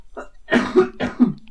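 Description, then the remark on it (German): A person coughs in a quick, throaty series of three or four harsh bursts, with a short rasping tail and no talking around it. “Ah, aber kein Podcast, in dem man nicht hustet.”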